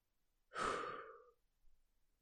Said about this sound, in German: Gemeinsam pusten wir unsere Kerzen aus. Bist du bereit? Eins, zwei, drei.